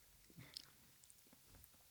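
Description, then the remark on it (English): Wet chewing of soft, sticky jelly beans, with irregular smacking bursts over a couple of seconds and a sharper click at the very end. “There's no way because I couldn't even chew it all the way.”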